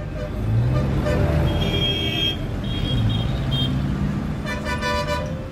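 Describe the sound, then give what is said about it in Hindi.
A car engine rumbles steadily as the vehicle pulls away, turning and heading to the city hospital about fifteen to twenty kilometres away, with a few short horn toots ringing out over the road noise. No one speaks. “अर्जुन जहां रहले वहां से अस्पताल की दूरी महज पंद्रह से बीस किलोमीटर का रहे अर्जुन जल्दी से अपन गाड़ी घुमा अस्पताल खातिर”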